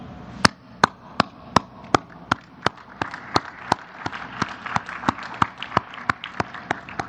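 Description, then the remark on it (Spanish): Rhythmic applause: about twenty sharp, evenly spaced claps in a steady beat, with a soft wash of crowd noise building underneath partway through. “Un aplauso.”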